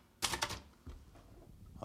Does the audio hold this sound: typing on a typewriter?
yes